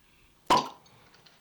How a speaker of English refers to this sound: Okay. so let's pop open a bottle and see what comes out. All right, let's do it.